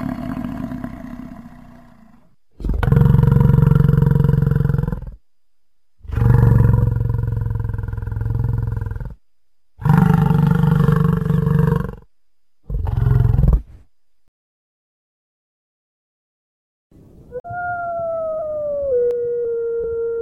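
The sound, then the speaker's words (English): An American bison bellows in four loud, deep, rumbling roars with short gaps between them. After a quiet pause comes a higher, drawn-out tonal call. No one speaks. “brought to you in part by Bison Bison, the American bison. And now, a word from our sponsor.”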